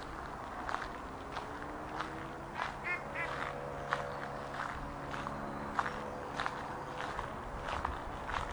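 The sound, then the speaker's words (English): Steady footsteps crunch on a loose gravel path under arching trees in early evening sunshine, in a regular walking rhythm, each step a short gritty scrunch, while ducks quack faintly in the background. “The gravel path feels slightly loose underfoot”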